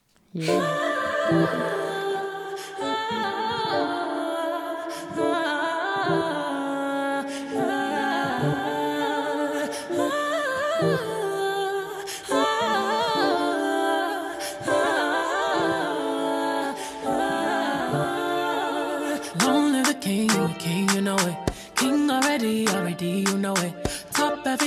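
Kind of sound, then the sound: sound effect, pop song playing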